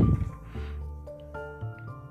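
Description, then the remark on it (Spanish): Spring water is poured into a pot on Cerro Otto in Bariloche, for boiling flowers: a soft splashing gurgle with a faint ringing tone from the vessel, lasting a couple of seconds with no one talking. “En este caso yo voy a utilizar un agua de vertiente, que estoy en el Cerro Otto de Bariloche, y vamos a hervir las flores por media hora.”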